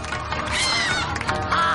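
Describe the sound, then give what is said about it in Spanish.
An animated hen made from paper squawks loudly and harshly, a few strained, rising calls running together over a dense, noisy background, with no talking. “Un papel se transforma en una gallina que escupe papeles rojos y amarillos.”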